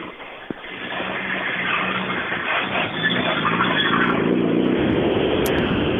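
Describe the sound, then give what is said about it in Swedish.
A rally car roars past, its engine noise building and sustaining loudly with a broad, rough rumble that swells toward the end, with no voices. “Roland Eliasson borde det vara som passerade där, va?”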